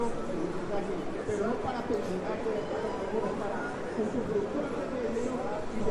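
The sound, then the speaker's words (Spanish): The amplified voice of a speaker at a union meeting outside the entrance of the Banco de la República carries over an outdoor crowd, with steady murmuring chatter and street ambience filling the background at a constant, moderate level. “Hay una reunión sindical en la puerta del Banco de la República. Tal vez alcances a oír a la persona que está hablando.”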